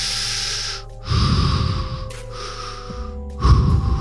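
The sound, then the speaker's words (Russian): Slow, heavy breathing of Michael Myers through a mask in the final shot of Michael Myers's house in the film, with a muffled, hollow rasp. Loud inhales and exhales alternate in a steady rhythm, with no talking. “И вот финальный кадр с дома Майкла Майерса с его дыханием”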